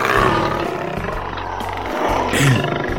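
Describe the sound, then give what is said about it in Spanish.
A lion roars in a loud, rough, sustained growl lasting the whole few seconds, with deep rumbling pulses underneath and a harsh, raspy upper edge, rising briefly toward the end. “Un día, mientras iba de camino a otro pueblo, le salió al encuentro un león”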